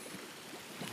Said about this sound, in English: So maybe you can hear the sea in the background while I'm walking this beautiful beach